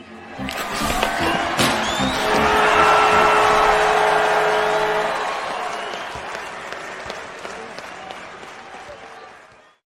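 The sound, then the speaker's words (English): Racing cars roar past with whining engines and screeching, skidding tires, a dense, loud rush of noise that swells in the first few seconds and then gradually fades away. “You can find cars like these on AutoTrader.”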